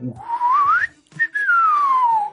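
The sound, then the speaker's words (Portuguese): A cartoonish slide whistle from a film soundtrack, played as a car does a spinning jump off a bridge, glides upward, breaks off briefly, then swoops back down in a long falling tone, loud and clear with no talking over it. “E depois tens aquela cena em que o carro eh, faz uma pirueta numa ponte de partida, sim, sim, sim, que eles inclusivamente na banda sonora metem aquele apito do...”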